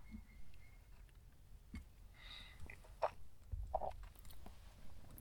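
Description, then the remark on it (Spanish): Someone quietly sips hot coffee, with a few soft slurps, swallows and small mouth clicks spread over a few seconds, no talking. “Pero bueno, voy a seguir, pausa para trago de café.”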